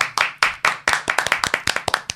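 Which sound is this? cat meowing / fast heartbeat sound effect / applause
applause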